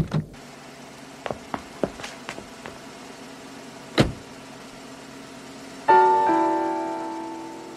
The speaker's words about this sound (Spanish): El pastor Way subió rápidamente a su carro, cerró las puertas con seguro, encendió el motor y lo dejó calentarse algunos segundos.